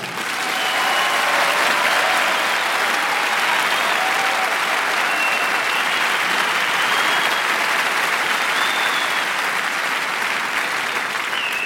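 audience applause and cheering

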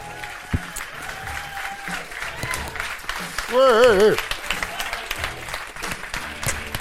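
studio audience applause

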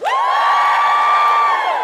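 audience cheering and whooping

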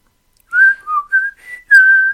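person whistling a song

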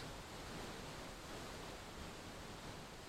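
waterfall rushing water

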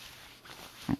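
man snoring loudly

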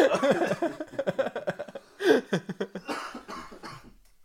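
coughing

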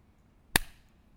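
single person clapping hands

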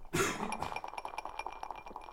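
ice clinking

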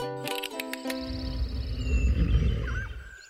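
bear growling

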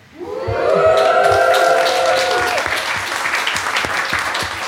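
audience applauding and cheering

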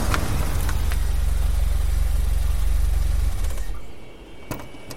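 car engine idling

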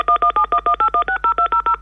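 telephone keypad dialing tones

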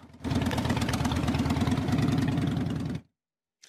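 motorcycle engines revving

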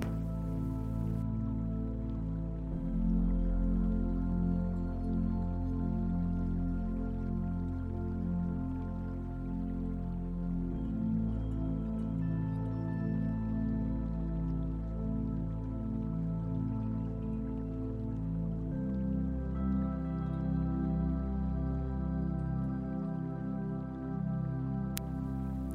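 running shower water

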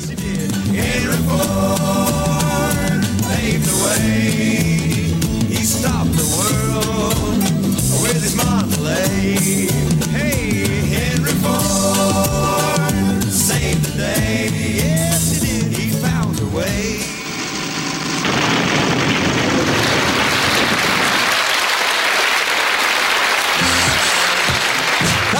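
pop song played

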